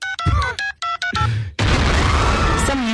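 A few quick keypad beeps from a mobile phone being dialed to detonate explosives, followed abruptly by a loud, sustained explosion that fills the sound with roaring, crackling noise.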